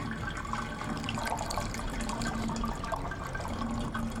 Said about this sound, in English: the murky liquid starts to drain out from that pool, and you can hear it start rushing in from underneath the baptismal pool and filling inside of this section of the room.